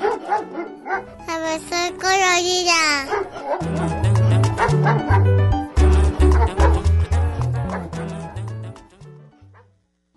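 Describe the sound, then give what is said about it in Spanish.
A dog named Pesio barks and yelps repeatedly, with a wavering whine early on, over lively music with a bouncy bass line that fades out at the end. “Pesio ladra.”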